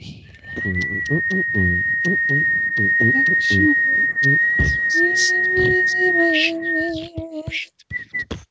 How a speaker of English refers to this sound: You can't laugh and whistle at the same time. It's impossible.